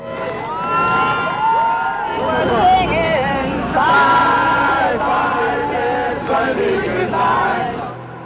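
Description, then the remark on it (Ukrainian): A large crowd cheers and shouts continuously, seeing off with fireworks the hearse carrying the body of serial killer Ted Bundy; a dense babble of many voices with rising whoops and yells, loud and sustained throughout before tapering slightly at the end. “Катафалк з тілом серійного маньяку фейерверками проведжав цілий натовп.”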